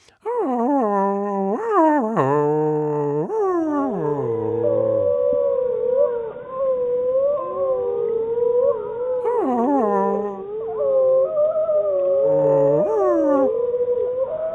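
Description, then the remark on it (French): A recording of two wolves, a pack of two, howling together, their long gliding tones overlapping and weaving at different pitches, with rising and falling wails and occasional sharp yips, loud and continuous with no talking. “C'est un enregistrement de deux loups, d'une meute de deux loups.”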